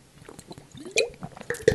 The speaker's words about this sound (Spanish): Perdón. Este es otro hábito, beber mucha agua. Esta es una botella de 375 mililitros y me bebo al día unas 4 o 5, depende del día.